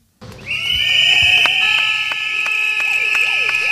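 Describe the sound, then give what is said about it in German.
A nursing staff demonstration by the Netzwerk Pflege in Not: loud, shrill whistles and horns blare together in a dense, sustained piercing wall of sound after a brief moment of quiet, with no clear speech. “Ja, so klang das, als das Netzwerk Pflege in Not hier bei uns war. Äh, die haben hier demonstriert.”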